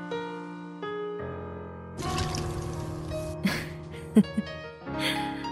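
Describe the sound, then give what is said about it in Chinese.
Wine is poured onto the ground as a toast in a steady splashing stream for over a second, followed by a few brief wet spatters, all over a soft, sustained musical accompaniment. “这坛酒是当年你和我一起埋在这树下的。这第一杯我喝了，第二杯敬你。”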